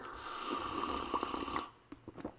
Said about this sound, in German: Und wie es dazu kommen konnte, das verrate ich Ihnen gleich nach einem Schlückchen frisch gezapfter koffeinhaltiger Apfelschorle zum Wohl.